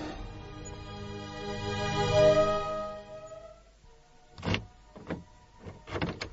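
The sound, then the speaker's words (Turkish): A car's motor whines steadily for a few seconds, then falls quiet before a car door clicks open and thumps shut in a few short knocks as someone gets out of the car, leaving it running. “Ben şimdi arabadan ineceğim.”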